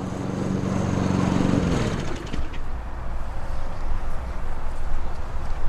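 A lawn mower engine drones steadily at first with a strong low hum, then shifts to a rougher, fluttering rattle as it keeps cutting grass. No one speaks.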